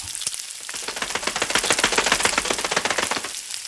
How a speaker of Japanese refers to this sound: ベーコンだよベーコンそこのアメリカンダイナーベーコンを炒めてるんだよオープンキッチンで